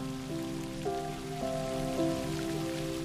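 Steady rain patters on surfaces in a continuous, even hiss, with soft sustained musical tones layered over it; no one speaks.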